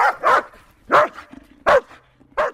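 A dog barks sharply several times, with short gaps between the loud yaps and a few faint whines in between.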